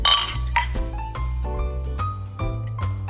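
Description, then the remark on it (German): Glasses of Nitro beer clink together several times in a toast, bright ringing chimes arriving in a loose rhythm over a steady low hum, fairly loud with no talking. “So, und ich würde sagen, wir trinken jetzt in aller Ruhe noch unser Nitro zu Ende. Prost!”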